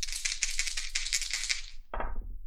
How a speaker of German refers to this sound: Wenn ich jetzt wieder eine 3-6 würfel, schmeiße ich die Würfel weg. Bin gespannt.